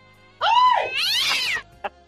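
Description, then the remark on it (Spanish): A cat lets out one drawn-out, whiny meow that rises and then bends downward, loud, followed by a brief faint sound; no one is talking. “agárrame el gato y juega con él.”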